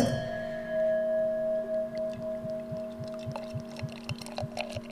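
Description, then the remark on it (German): A drink pours steadily into one of three glasses, a gurgling glug repeating rhythmically as the glass fills, with a faint rising tone and a few light clinks toward the end. No one speaks. “Okay, ich habe also drei Gläser vor mir.”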